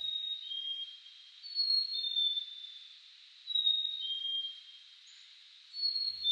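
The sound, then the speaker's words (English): A bird sings alone in a series of high, clear whistled phrases, each a second or two long with short pauses between, fairly soft over a faint hiss, heard while out on a hike. “Now, I'm no ornithologist, but I know birds are excellent singers. Just listen to this one I heard while I was out on a hike yesterday.”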